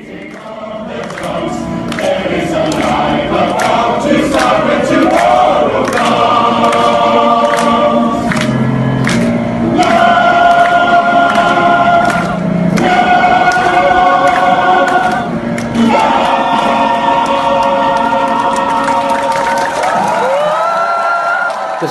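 A large protest crowd on the streets of Hong Kong sings a song from a musical together in Cantonese, many voices blending into loud, sustained melodic lines that rise and fall steadily, with a continuous murmur of the crowd underneath.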